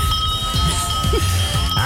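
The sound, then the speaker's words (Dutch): A bell rings with steady, bright tones that hang in the air for the full couple of seconds, over a low rumbling background, with no talking. “Ik denk ook zo eventjes de bel laten horen hoor”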